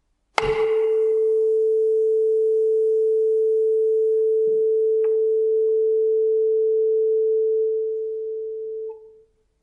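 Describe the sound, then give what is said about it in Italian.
A tuning fork is struck with a brief metallic attack, then rings as a single steady pure tone for about eight seconds before fading out. No voices; a couple of faint small clicks occur midway. “Se uno fa eh, suonare un diapason ottiene un suono puro, senza sbavature o senza armonici, eh, come li chiamerebbero i musicisti.”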